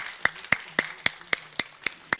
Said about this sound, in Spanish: En el nombre de Jesús te amamos te bendecimos y te damos toda la gloria y otro fuerte aplauso, Señor, a tu palabra.